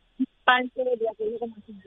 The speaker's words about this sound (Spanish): Puedes quitar el speakerphone, puedes quitar, puedes tomar el teléfono en la mano. No te escucho bien, por favor. Es que estaba en el carro.